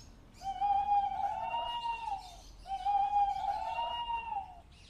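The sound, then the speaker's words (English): A big owl hoots twice, each call a long, drawn-out tone lasting about two seconds, separated by a short pause. The calls sound clear against quiet background noise, with no talking. “Such a big owl that one is.”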